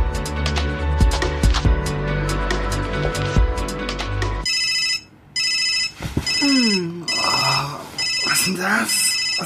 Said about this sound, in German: Ist das dein Handy? Mm, meine Mutter.